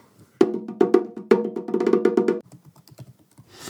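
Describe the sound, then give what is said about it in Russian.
A quick burst of clattering computer keyboard typing, fairly loud, with irregular keystrokes for about two seconds before trailing off into a few softer taps. “который он печатает прямо сейчас”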